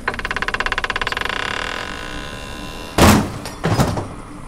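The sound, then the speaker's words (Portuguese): A rapid rhythmic rattling grinds for about two seconds, then two heavy, loud thuds and scrapes follow, like a stiff, heavy door being shoved and forced open. “Certo, você precisa me dar uma ajuda com essa porta.”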